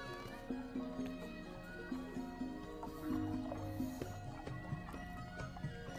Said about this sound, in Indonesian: Matanya seperti mengharapkan tertumbuk pada sesuatu, dan harapannya terjawab ketika dia melihat seekor kuda berdiri tak jauh dari sebuah pohon dan kakinya menjejak jejak kecil di atas tanah.